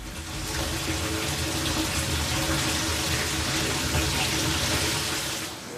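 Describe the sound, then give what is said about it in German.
Water rushes steadily and loudly through the pipes and equipment of a water treatment system being tested in a company hall, carried from a well pump by a feed pump to sand and carbon filters; a continuous hiss layered over a low mechanical hum, with no voices and no breaks. “Im Prinzip kommt das Wasser von einer Brunnenpumpe in die Anlage, dann nimmt die Förderpumpe das Wasser auf, bringt es zu einem Sandfilter, zu einem Carbonfilter.”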